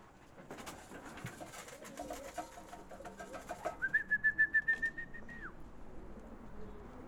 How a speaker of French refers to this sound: Oh, là, ils sont partis pour voler, ils sont en forme. Je les siffle. Hein. Je les siffler, mais ils sont pas trop habitués, ceux-là.